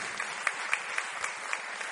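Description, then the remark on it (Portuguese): A church audience claps steadily one afternoon for a group of new converts, a dense wash of applause with a few sharper, louder claps popping out at regular intervals, with no voices. “Essas pessoas elas estão muito à vontade, elas estão assim muito tranquilas nesta tarde e para quebrar o gelo, vamos aplaudir esse grupo bonito que está aqui.”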